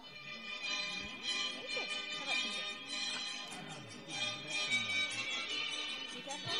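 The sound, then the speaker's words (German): A telephone belonging to a man sitting beside the listener rings with a steady, sustained metallic jangle that carries through the whole stretch, while murmuring voices sit faintly underneath; the man then answers it. “der Typ neben dir ähm, geht ans Telefon und sagt, Carlos hier”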